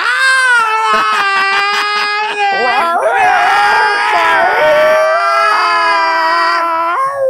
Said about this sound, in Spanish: Lo peor que te puede pasar, güey. Que dos gatos tengan sexo cerca a, a 100 metros de tu casa, güey, porque no vas a dormir.